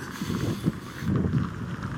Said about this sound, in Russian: Видите, сегодня особенно мне ваше понимание понадобится, потому что ветер.